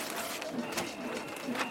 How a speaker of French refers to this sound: Le panneau s'ouvre. La fiche est arrachée,